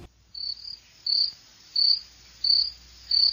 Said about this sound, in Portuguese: Ah, só, só o grilo.